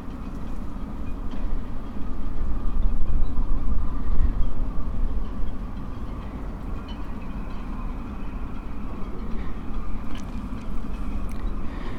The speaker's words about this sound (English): Today's walk is around the Isle of Portland along the southwest coast path. The date today is Wednesday, the 7th of June 2017. is a windy day today.